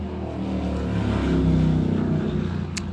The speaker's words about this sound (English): sorry about that it's a little warm here in San Diego and I have the window open and a motorcycle just had to go by